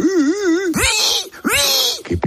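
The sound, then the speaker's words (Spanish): A young man's voice on the radio imitates a pig squealing as its throat is cut: a wavering, strained wail followed by two loud, harsh shrieks and a short gasping squeal, intense. “O sea, tú te imaginas a tu padre, a tu madre, a tus abuelos, escuchar a su nieto hacer el cerdo mientras lo están degollando en la radio.”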